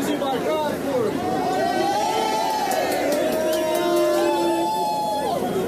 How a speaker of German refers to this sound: Angekommen an der Station Paulista stimmen Bolsonaro-AnhängerInnen in einen gemeinsamen Jubel ein. Einige sind mit Tröten ausgestattet.